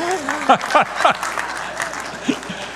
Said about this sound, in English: so that got your applause.